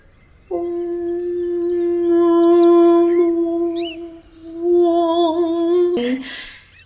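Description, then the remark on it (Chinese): A steady, droning buzz of insects holds for several seconds, rising and falling slightly in loudness, with faint high bird chirps scattered above it and a brief noisy burst near the end. “因为这附近很安静，虽然有一些虫鸣鸟叫，但是你隐隐约约的有听到”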